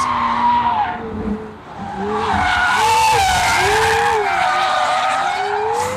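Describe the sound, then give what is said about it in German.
Sports car tires squeal loudly and continuously, wavering up and down in pitch over a steady engine roar, with a brief dip before the screeching intensifies again. “Beim Reifenquietschen hörst du dann quasi fast gar nicht mehr”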